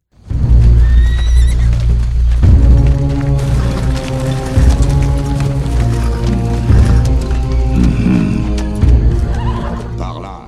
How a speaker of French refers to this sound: ce thème musical, c'est le Requiem dies irae que on a pu entendre dans un autre film